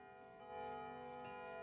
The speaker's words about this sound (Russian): часы на стене напугали своим боем.